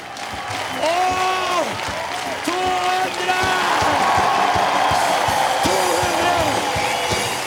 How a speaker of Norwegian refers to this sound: Til stående applaus fra flere tusen tilskuere ble Kristoffer Skau pisket fremover av Atle Antonsen mens han fylte munnen med 200 Fisherman's Friend.